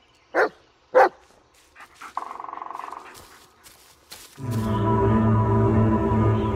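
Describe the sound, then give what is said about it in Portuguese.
A dog, Bullet from the video game Blair Witch, gives two loud, sharp barks about half a second apart. A short buzzing tone follows, then a steady, low droning sound swells and holds to the end. “a gente só quer relaxar, fazer aquele carinho no nosso cachorro, dar um pouquinho de afeto digital ao nosso companheiro”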